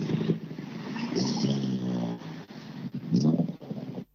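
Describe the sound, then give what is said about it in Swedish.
A Honda car engine roars past, loud and steady with a windy rush, its revving rising and dipping over a few seconds before cutting off. “Ja, V-förare brukar vara en hel hög med 940 och det är det, men här är ingen 940. Nej, en Honda.”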